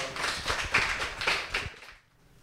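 An audience at a special public broadcast of the show 오은의 옹기종기 gives a final big round of applause for a guest, dense, steady clapping that holds for about two seconds before fading away quickly, with no voices on top.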